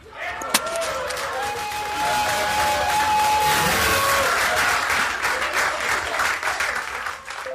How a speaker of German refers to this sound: so klang das und es war so ziemlich die einzige Partei, die doch äh, so laut hörbar gefeiert hat.